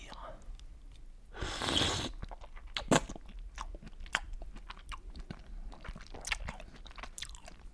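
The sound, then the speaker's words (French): A person eats a raw oyster, bringing it to the mouth and swallowing it: a loud wet slurp, a sharp click, then several seconds of soft, irregular chewing and mouth noises with faint breathy murmuring in the background. “Décaloter le petit pied, porter l'huître à sa bouche et la déglutir.”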